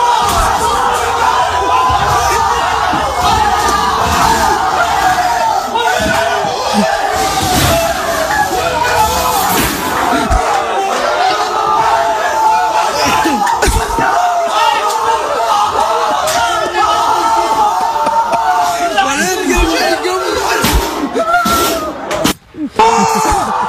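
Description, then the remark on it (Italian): A loud, sustained roar of men packed into a house in Saudi Arabia cheering and shouting together at the final whistle of the Argentina vs Saudi Arabia football match, dense and unbroken for over twenty seconds, with scattered thumps and bangs mixed into the celebration before a brief dip near the end. “Vi facciamo sentire il fischio finale di eh, Argentina-Arabia Saudita in questa casa eh, eh, araba.”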